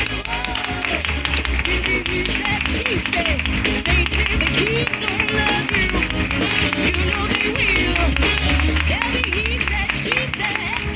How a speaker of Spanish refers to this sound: lo que hacemos es rendir tributo a ellos, porque han vuelto a llenar el Café La Palma y necesitamos que desde aquí el aplauso vaya de hacia allá. Un aplauso al público lunero.